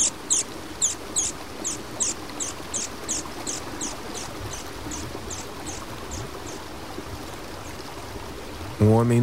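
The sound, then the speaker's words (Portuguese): River water burbles steadily over stones near the riverbank in a soft, continuous wash, with a regular series of high chirps fading out over the first half and a voice starting right at the end. “Os sons do rio também são infinitos em sua variedade. Próximo à margem, junto às pedras, são delicados e melódicos.”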